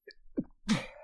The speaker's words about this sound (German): Gesundheit. Danke.